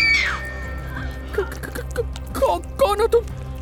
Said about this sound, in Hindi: इतना कहकर निधि ने उस शख्स के कंधे पर हाथ रख दिया मगर जैसे ही वो शख्स निधि की तरफ मुड़ा तो निधि जोर से चीख पड़ी